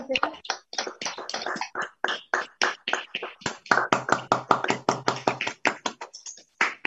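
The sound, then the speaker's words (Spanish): An audience claps loudly and steadily in a fast, even rhythm for several seconds, giving strong claps of praise to the Lord during a Spanish-language church worship service, the sharp claps over a faint murmur of voices underneath. “Mis hermanos, allí donde estamos le demos fuertes palmas al Señor, que se escuchen.”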